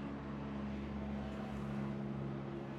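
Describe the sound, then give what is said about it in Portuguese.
A police helicopter flies low overhead, a loud, continuous engine-and-rotor rumble with deep humming tones, filling the whole moment without any voices. “Caraca, um helicóptero tá passando baixinho aqui, hein?”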